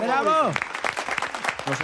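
A burst of clapping from a small audience applauding "our conspirator", quick irregular claps that carry on steadily, opening with a loud, falling vocal whoop or cheer.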